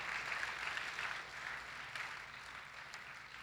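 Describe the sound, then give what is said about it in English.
A church crowd claps during a sermon, after declaring Jesus the light of the world, steadily for a few seconds, a dense wash of many hands slapping at once, fairly soft and even, with no voices over it. “It's all right, you can clap for that.”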